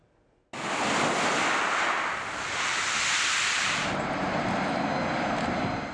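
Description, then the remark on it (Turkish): Loud, continuous surf roars in suddenly after a brief quiet moment, a broad wash of breaking waves with a steady hiss and faint wind rumble, unbroken, with no voices. “Bir yanda deniz, kum, güneş, diğer yanda soğuk ve karla mücadele.”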